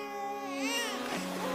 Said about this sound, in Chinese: 听见孩子哭声，璎珞连忙抱过孩子，跪在地上。 皇上，您瞧，小阿哥虽然浑身发黄，可他哭声洪亮。